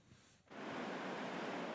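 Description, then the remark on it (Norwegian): A broad, steady roar of surf swells up after a brief quieter moment, like waves crashing and washing continuously along a shore, loud with no voices. Storm waves up to five metres high on the coast of Australia south of Sydney. “På kysten av Australia sør for Sydney er flere bolighus eh, tatt av vannmassene denne uka. Bølgene har vært inntil fem meter høye.”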